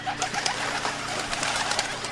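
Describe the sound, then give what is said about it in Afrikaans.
Doves in a city cooing in low, throaty murmurs over a steady rustling, fluttery background, with no one speaking; the sound stays at an even, moderate level throughout. “Ag, die arme duwe, hulle skrik so maklik.”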